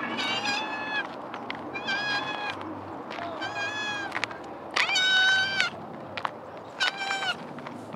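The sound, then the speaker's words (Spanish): A cat that has just leapt over a fence about one and a half metres high toward the speakers meows repeatedly, a string of loud, drawn-out harmonic cries coming in quick succession with short pauses, over a steady low background hum. “Hay un gato que ha saltado por una valla de, metro y medio volando hacia nosotros.”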